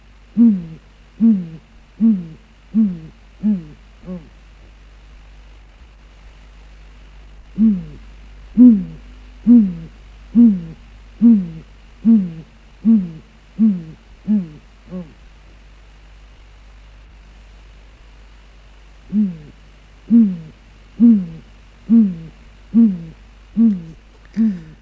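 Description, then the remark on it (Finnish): A great grey owl gives three series of deep, evenly spaced hoots, each about eight to ten notes long, with short pauses between series, heard clearly against a quiet background. “Hei, eräs kuuntelija on kaivannut meiltä Lapinpöllön ääntä.”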